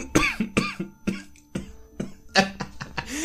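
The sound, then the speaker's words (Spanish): A loud fit of repeated harsh coughs, about eight bursts in quick irregular succession over a few seconds, from someone whose laughing set off the coughing, with no talking. “Este, no voy a editar esas toses.”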